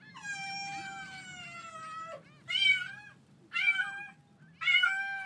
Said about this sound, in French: L'eau passe encore à certains endroits et les chats sont très mécontents.